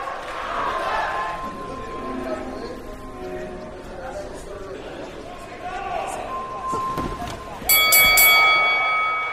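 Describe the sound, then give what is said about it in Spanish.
A boxing bell clangs loudly in a quick burst of rings near the end, signalling the start of round 1 of the Mexico vs. Great Britain fight between Jaime Munguía and Taylor, rising over a steady crowd murmur and a voice talking in the background. “Está listo Jaime Munguía, también Taylor, cada uno en las esquinas, las últimas indicaciones, todo listo para el arranque de esta pelea y va a sonar la campana, señoras y señores.”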